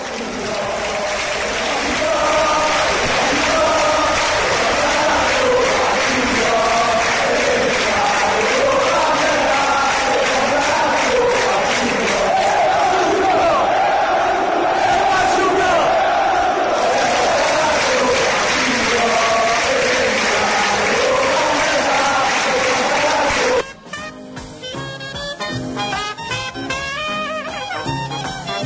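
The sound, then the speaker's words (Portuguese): A large crowd of football supporters loudly sings the chant 'Fatium Gol' to the melody of When the Saints Go Marching In, voices merging into a continuous roar, before the chanting cuts off and a short trumpet melody of When the Saints Go Marching In plays. “Vamos ouvir Fatium Gol com a melodia de When the Saints Go Marching In.”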